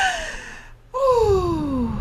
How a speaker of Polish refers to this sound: I często na, przed egzaminami każą nam ziewać. Jest, takie, jest taka porada, ziewnij przed egzaminem.